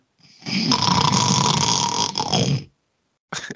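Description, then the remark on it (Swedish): A voice imitates loud snoring of someone falling asleep a second after coming in to watch Batman: one long, rasping, rattling snore lasting about two seconds, followed after a short pause by the brief start of another. “Sen kommer hon in, nu ska vi se Batman. Och så låter det så här en sekund senare.”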